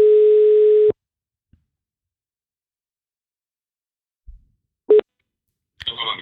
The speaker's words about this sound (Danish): Vi prøver at ringe ham op her. Prøv lige at ringe ham op.